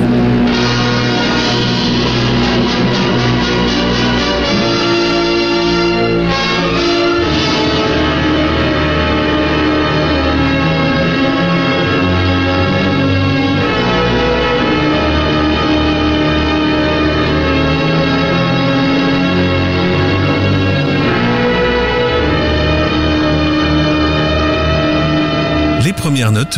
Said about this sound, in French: et le premier coup de sirène entendu dans Femmes en cage, le film de John Cromwell.